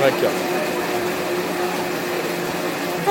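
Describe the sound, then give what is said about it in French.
An electric blender making a cocktail runs steadily at high speed, a loud, continuous motorized whir with a droning hum, lasting the whole time without pause. “comme ce bruit de mixeur.”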